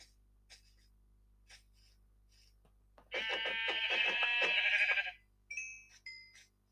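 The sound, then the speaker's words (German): A single loud, wavering sheep bleat from a video game lasts about two seconds, followed by a few shorter high-pitched game-like chirps, with faint clicks before it and no talking. “Nein, da sind nur Schafe.”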